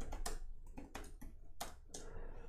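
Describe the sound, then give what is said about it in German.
Quick, uneven clicks of someone typing a search term on a computer keyboard, fairly quiet, about eight keystrokes in a short burst with no voices. “auf die Startseite und dann eben zu meinem Video, zu meinem Thema hier was eingebe.”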